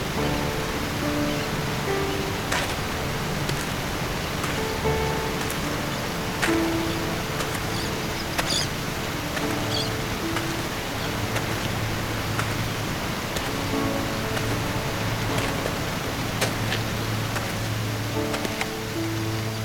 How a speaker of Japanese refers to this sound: うわ大きな滝水しぶきがこんな遠くまで飛んでくるんだね大きな音